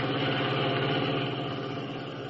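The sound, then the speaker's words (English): A station wagon's engine drones steadily as it drives north along River Road, a dark, narrow road following a tall bluff high above a river: a dense, even low rumble with a faint vibrating hum, holding constant with no speech over it. “Having doubled back to the highway in their station wagon, Blake, at the command of Big George Latimer, followed the highway for two miles”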